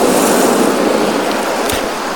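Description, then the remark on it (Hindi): Ocean waves wash steadily onto the shore in a loud, continuous roar of surf, with no voices and no clear breaks between waves. “ये लहरें आ आकर वापस लौट जाती हैं”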